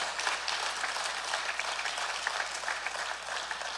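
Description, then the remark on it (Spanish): A crowd applauds the Lord and his word, many hands clapping together in a dense, continuous patter that stays at an even level throughout, with no voices rising above it. “Alguien debería aplaudir más fuerte al Señor y a su palabra.”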